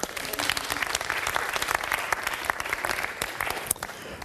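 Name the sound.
audience round of applause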